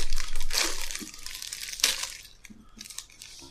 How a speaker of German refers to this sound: Dann ähm, würde ich sagen, wir öffnen den Fate Cookie, bevor es magisch wird.